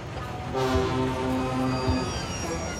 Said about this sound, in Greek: Λίγο αργότερα, ο Τόμας επέστρεφε από το δάσος όταν τον είδαν δύο ντιζελομηχανές, οι οποίες έσπροχναν κάποια αυτοκίνητα.